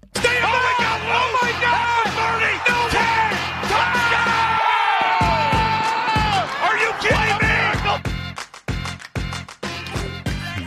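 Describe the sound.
An energetic custom audio drop jingle for the Play of the Week segment of NFL Tuesday: a loud, steady pounding beat under layered yelling and whooping voices and sweeping tones, ending in a run of choppy, stuttering hits.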